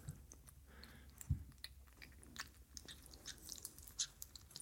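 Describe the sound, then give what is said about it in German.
Two cats eat from one large bowl: soft, irregular crunching and wet chewing clicks, with a brief thump early on, quiet throughout with no talking. “Und die eine Katze steckt immer ihren Fuß ins Futter.”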